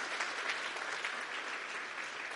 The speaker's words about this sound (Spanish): Vamos a darle un fuerte aplauso a los que vinieron por primera vez. ¿Vale? Gracias.